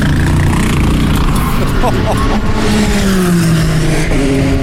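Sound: race car engine revving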